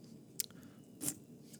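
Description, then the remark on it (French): A small sip of an 8% alcohol craft beer: two brief, wet mouth sounds, a quick slurp and swallow, against a quiet background with no talking. “prendre une petite gorgée.”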